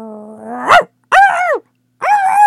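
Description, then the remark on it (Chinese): A small dog barks sharply three times in quick succession, loud, high-pitched and insistent, the first bark rising from a low growl-like whine. No one speaks. “说话间，一只跟着巫婆出门来的小狗冲着小伙子吠叫的很厉害。”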